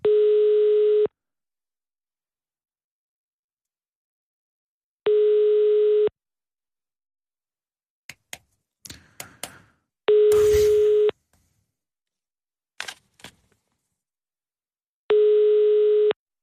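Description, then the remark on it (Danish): A telephone line's busy waiting tone on a call to a pharmacy: four steady, mid-low beeps, each about a second long and spaced roughly five seconds apart, with a few scattered clicks and rustles between them. “De er travlt på det apotek.”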